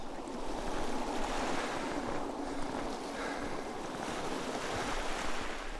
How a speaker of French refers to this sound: Plage de jolis sable gris où viennent clapoter les petites vagues et trembler de beaux rouleaux d'écume blanche.